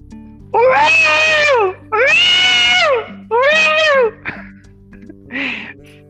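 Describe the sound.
A voice lets out three loud, drawn-out wailing screams in quick succession, then a few shorter strained cries, imitating Joyce's frantic call for Will as guests enter. The screams sound piercing, with no other talk.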